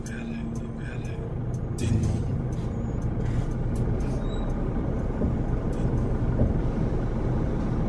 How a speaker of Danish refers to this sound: Det er altid bussen.